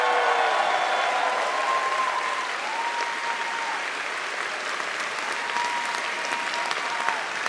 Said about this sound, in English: Can, can, I, can we just get like a round of applause for?